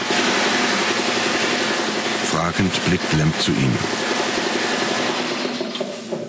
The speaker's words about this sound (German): Der spritzt mit der Hochdruckpistole das Faltboot ab.